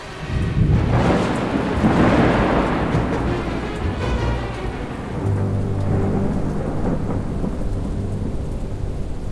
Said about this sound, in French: La tempête souffle depuis maintenant 15 heures.